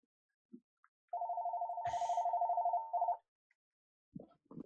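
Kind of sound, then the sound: signal or alarm, telephone ringing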